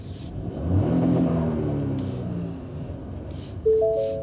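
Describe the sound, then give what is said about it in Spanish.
A car engine revs up and accelerates, its rising drone swelling early then settling into a steady rumble of driving, with a brief sharp tone near the end. “Y como que no puedo, no puedo como que guiar. Ya que me voy a virar.”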